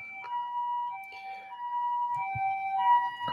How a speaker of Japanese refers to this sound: またですね、またちょっと救急車があの来ておりますと。